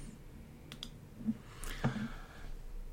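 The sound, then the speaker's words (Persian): A few quiet clicks, one an accidental click made while setting a coffee cup down, with a soft thud of the cup being set down on a hard surface partway through, over faint background hiss and no talking. “خلاصه چی شد یه کلیک اشتباهی کردم مدام قهوه رو بذارم زمین کلیک شد”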